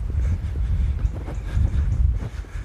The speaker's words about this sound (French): Il y a du vent. Hein. Je vais laisser le vent parler à ma place.